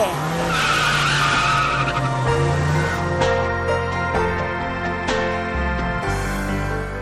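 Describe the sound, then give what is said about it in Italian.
Tires screech loudly and continuously as a car speeds off, its engine roaring underneath, the squeal wavering in pitch for several seconds, with no voices. “Dai, sali in macchina, via corsa!”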